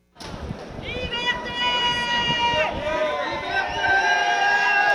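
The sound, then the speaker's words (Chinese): A large crowd of French protesters shouts freedom slogans together in unison, protesting the government's COVID health pass rule, sustained voices rising and falling over a constant roar of chatter, loud throughout the whole stretch. “大批法国民众高喊自由口号，因为不满政府最新政策，进入餐厅、酒吧、搭火车都得出示健康通行证，证明接种过疫苗，或是最近新冠肺炎筛检阴性。”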